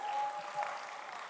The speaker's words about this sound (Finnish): Annetaan huikeat aplodit.